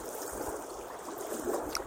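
Soft, steady lapping and trickling of water at the water's edge outdoors on a fine autumn day, a gentle continuous wash with faint gurgles and no voices.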